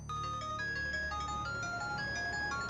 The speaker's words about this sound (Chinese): 正走着，那个瘦子接到一个电话。